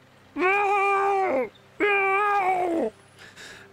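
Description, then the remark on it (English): A person imitates a distressed cat, letting out two long, drawn-out wailing meows in close succession, loud with strong harmonics, followed by a brief quiet pause. “making these distressing sounds, and um, then turns back to you to answer your question about its mate's name.”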